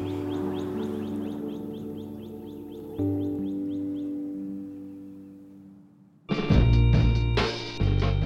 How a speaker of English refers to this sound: I love nature, I love the woods, and right now you can hear all the birds chirping and just normal nature sounds. I love that.